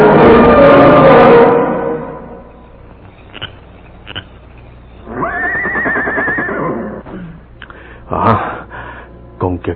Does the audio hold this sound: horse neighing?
yes